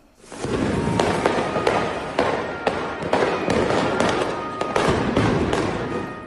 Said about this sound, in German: Autos brennen, Feuerwerkskörper und Stühle fliegen durch die Luft. Vor und nach dem Fußball-Champions League-Spiel von Eintracht Frankfurt gibt es Ausschreitungen in Neapel.